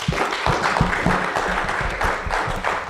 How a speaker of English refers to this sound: Thank you very much. And uh, round of applause, please, for my panelists.